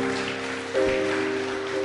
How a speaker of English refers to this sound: Welcome to the family of God. Come on now, give him a round of applause.